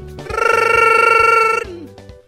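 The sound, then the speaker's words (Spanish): A single loud telephone ring, a bright trilling bell tone lasting a little over a second that stops abruptly, over a faint low rhythmic background. “Ahorita están sonando todos los teléfonos de las amigas feas, ¿no?”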